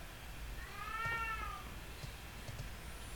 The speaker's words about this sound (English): And uh, is that a cat or a baby? That one's uh, that's a cat.